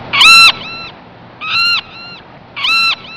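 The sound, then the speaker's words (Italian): Three loud, harsh seagull calls sound at an even pace, each a strident cry trailing off into a softer echo-like tail, over a faint background hiss with no talking. “Ho detto le due aquile, non i due gabbiani.”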